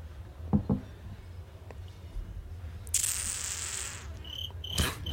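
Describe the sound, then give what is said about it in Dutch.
Crickets chirp in a steady high-pitched trill that rises partway through and continues, fairly quiet, over a low background rumble with a few soft knocks and no talking. “Probeer de krekels aan te zetten. Ik hoor ze niet. Oh, ik hoor ze toch.”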